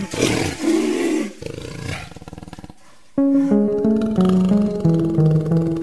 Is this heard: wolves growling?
yes